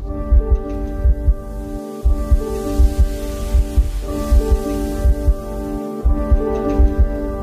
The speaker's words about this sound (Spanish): esa es la canción que abre el disco, abre, con el sonido de, mi corazón, real, literal, eh, que lo grabé Puse un micrófono, un condenser en el corazón y lo grabé.